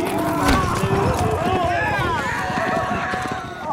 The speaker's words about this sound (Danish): det er simpelthen, hvor han har taget øh, rulleskøjter på, og så står og gør sig til over for en, øh, tre bøfler, der så kommer trampende ind. Og det kan man høre her.